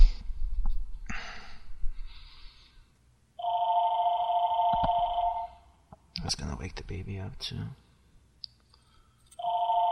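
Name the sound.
old telephone bell ringing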